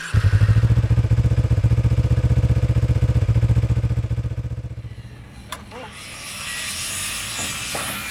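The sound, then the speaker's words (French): A motorcycle engine, just mounted and started by its rider in a garage box, runs with a loud, steady throbbing idle that fades after about four seconds, giving way to a softer, airy rushing noise. “Dans ce box, il y a aussi ma moto, que j'enfourche et démarre dans la foulée.”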